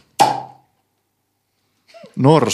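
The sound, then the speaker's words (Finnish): One sudden, explosive sneeze with a breathy burst that fades within half a second, followed by a pause of silence before a person starts talking. “aivasti.”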